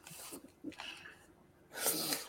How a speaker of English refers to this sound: oh i start coughing now. yeah, my, I, am very hoarse and very tired after my uh, my weekend playing in the south.